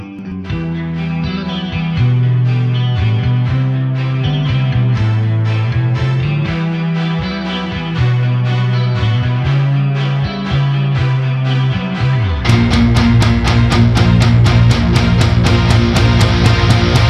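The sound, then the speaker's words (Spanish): A metal song plays with no talking: a moody, sustained guitar intro with steady low notes, then around twelve seconds the full band bursts in, loud distorted guitars over pounding, rapid drum hits. “Sí, sí, es una de mis bandas de metal preferidas.”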